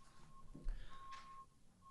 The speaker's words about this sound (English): I thought that was my beep. Nice backup. I love it. They do like a good backup beep though. It's kind of nice.